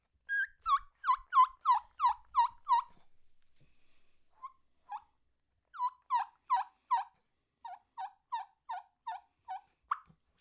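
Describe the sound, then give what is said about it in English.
A series of high-pitched turkey call notes, kee-kee yelps, in quick rhythmic bursts, pausing briefly before resuming in two more runs, loud with no voices. “Um, you, you basically get a high pitch like, like your hee hee only you with it.”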